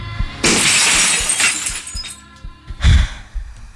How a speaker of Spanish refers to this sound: Y de pronto, la mano de ese brazo agarró el cenicero y lo estampó en el medio de la pantalla de la computadora en el preciso instante en que se me aparecía uno de los enanitos mostrándome el culo.